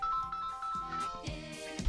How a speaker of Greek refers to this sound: Με συγχωρείτε, παιδιά, χτυπήσατε τα τηλέφωνα